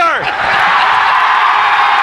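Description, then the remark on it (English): A man lets out a loud, sustained scream of celebration after winning the Stanley Cup championship, starting with a sharp whooping cry and holding a raw, strained yell for about two seconds, intense. “That's a good the, scream.”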